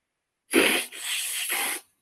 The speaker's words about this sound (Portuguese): Vocês vão me perdoar que eu preciso assoar o nariz, eu ainda estou resfriado.